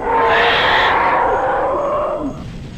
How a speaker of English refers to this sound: I turned round, and suddenly I saw it an enormous dinosaur standing more than 12 meters tall. It gave a loud roar, and I saw its enormous sharp teeth and the red blood around its horrible mouth.